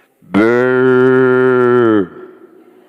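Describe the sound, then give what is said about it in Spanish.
A person imitates the bleat of a ram caught in the bushes: one loud, sustained, low-pitched nasal call holding steady for over a second and a half, then dropping off abruptly into quiet. “Dios detuvo su mano y le dijo, y oyó que el carnero estaba atorado en los matorrales.”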